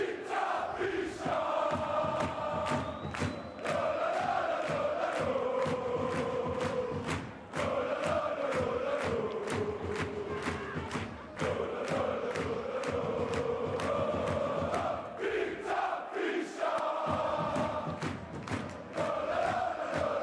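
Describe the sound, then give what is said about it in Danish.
A loud crowd in Brøndby, recorded on a portable Zoom H6 recorder fitted with a windscreen, fills the whole recording, many voices chanting and shouting together over a steady run of sharp thumps or claps, with a brief dip in the noise partway through. “Altså, denne jingle, øh, den optog jeg på vores lille Zoom H6 optager, som man kan tage med og sætte sådan en vindhætte på.”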